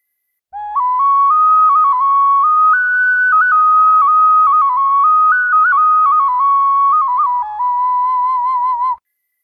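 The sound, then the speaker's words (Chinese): A bamboo flute plays a smooth, continuous melody for about eight seconds to demonstrate its timbre, its clear, breathy tone gliding through mid-high notes that rise slightly and settle back down, with no voices. “音色决定于发声体的材料和结构，比如铜是笛子，听一下竹笛的声音，”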